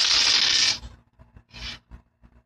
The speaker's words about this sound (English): Okay, sorry. I'm gonna roll two dice. So between two and twelve. Ready, go.